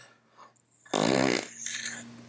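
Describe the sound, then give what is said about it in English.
A loud, buzzy fart noise made with the mouth bursts out for about half a second, followed by a softer breathy rasp trailing off. It's a single vocal imitation with no talking. “How dare you fart in front of me when I've had a shit all day?”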